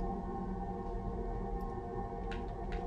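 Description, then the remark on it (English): Voyager space probe recording of planetary sounds generated by magnetic fields and magnetic particle vibrations: an eerie, steady drone of layered humming tones over a churning low rumble, with two brief hissy swells near the end and no voices. “In and I think that what they uh, represent are kind of um, magnetic fields and magnetic particle vibrations, which generate some of the sounds you hear on this record.”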